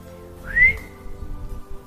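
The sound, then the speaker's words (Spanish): A single short whistle from a man calling puppies rises sharply in pitch, clear, then fades into a low, steady background rumble. “El hombre sonrió y llamó a los perritos con un silbido.”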